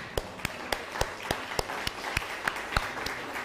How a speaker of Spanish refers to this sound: Por favor, es una persona nuevecita y le dio al clavo. Aplausos para la hermana.